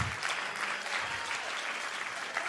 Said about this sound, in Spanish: El Señor contestó mi oración. Eso, eso merece un mejor aplauso.